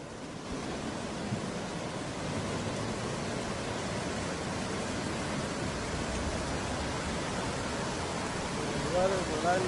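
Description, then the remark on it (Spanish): A steady, dense roar of rushing water from a river in the municipality of San Gabriel that suddenly widened overnight, carrying a great amount of water; broad and continuous like a swollen river in full flow, holding at an even loudness throughout with no pauses. “Eh, es, es, un río que se ensancha de la noche a la mañana, como podríamos decir, o de un instante a otro, mejor dicho.”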